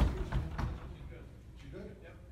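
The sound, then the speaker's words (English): Several heavy thuds strike a door in quick succession as it is forced during an active training exercise in which armed officers breach a room to apprehend two suspects, loud at first, followed by muffled voices talking. “They're having a problem breaching the door, obviously.”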